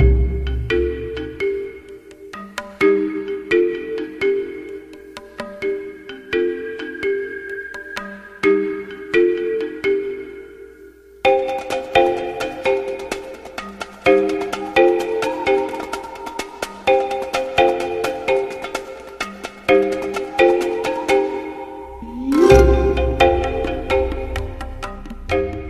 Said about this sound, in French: C'est ce que vous venez d'entendre, la BO, la bande originale d'American Beauty réalisée par Sam Mendes.